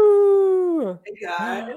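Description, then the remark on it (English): A dog howls in one long, steady note that slides downward, then breaks into a shorter, rougher, wavering howl before stopping. “And dogs. with some dogs.”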